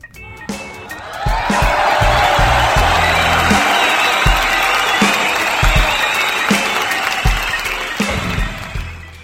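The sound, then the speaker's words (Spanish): A crowd bursts into sustained, loud applause with scattered cheers and whoops, the dense clapping holding steady for several seconds before tapering slightly at the end. “y para ellos venga familia, fuerte el aplauso.”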